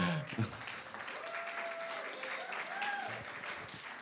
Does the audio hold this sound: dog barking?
no